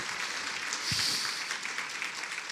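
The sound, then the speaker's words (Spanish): A church audience applauds for the Lord together, a dense, steady patter of many hands clapping at once that holds at an even, moderate level through the whole stretch, with no voices standing out. “Un aplauso para el Señor, ¿no?”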